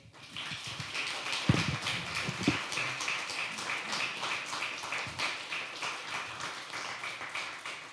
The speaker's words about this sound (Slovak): poprosím potlesk pre pána Powera